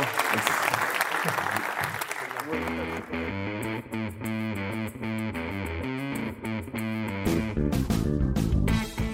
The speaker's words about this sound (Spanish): Muchas gracias. Gracias por estar aquí. un aplauso para ….